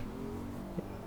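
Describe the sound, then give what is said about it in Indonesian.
The motorcycle of a resident who reprimanded a speeding Toyota Avanza driver on a residential street hums in a steady, low drone, fairly quiet and held at an even pitch throughout, with a brief bump in level near the end and no voices. “Nah, itu suara motor.”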